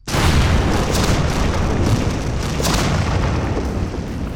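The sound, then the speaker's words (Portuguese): A loud explosion sound effect bursts in abruptly and holds as a dense, rumbling roar with crackling debris for several seconds, with no voices. “Tu, tu foi junto com a explosão.”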